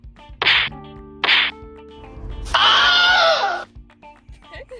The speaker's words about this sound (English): my elastic fl- fl- flips around and he keeps on staring at it and he's bothering me you might hear him get punched.